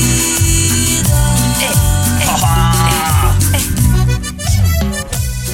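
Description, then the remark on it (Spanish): A song plays loudly and steadily, with a bouncing bass line, a regular percussion pattern and melodic keyboard and vocal lines on top. No one talks over it. “Ahí estamos escuchando …”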